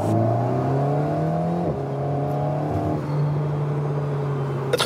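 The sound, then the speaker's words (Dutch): An Alpine A110 sports car engine revs hard and steadily, its loud droning pitch climbing, dropping briefly at a gear change around midway, then climbing again. No one speaks. “Meinlert kon deze week eindelijk de Alpine A110 testen.”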